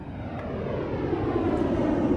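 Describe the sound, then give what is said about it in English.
A huge passenger jet flies low overhead on its approach to Heathrow, its deep, steady engine roar filling the air and swelling slightly louder over a couple of seconds, with no voices. “As a huge passenger jet thundered past overhead on its approach to Heathrow”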